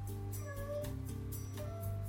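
A cat meows a couple of times, drawn-out rising cries asking to be fed, with a steady low hum running underneath throughout.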